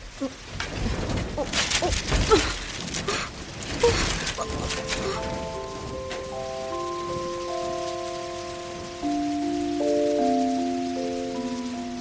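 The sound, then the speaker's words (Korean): A burst of heavy rain and gusting wind roars loudly for a few seconds, with sharp splashes and clatter, then eases into a steady wash beneath sustained, droning tones. “휴대폰 안에도 비바람이 친다는 거야.”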